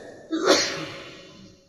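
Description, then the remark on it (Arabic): A single sharp sneeze bursts out, a quick explosive snap that fades into a brief breathy tail, with no talking over it. “رحمك الله”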